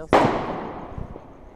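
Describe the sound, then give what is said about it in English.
A single sharp gunshot cracks out loud outdoors around 2:30 in the morning, heard from a police car not far away, its echo trailing off slowly along the street, followed by faint low rumbling. “Okay, that was a gunshot.”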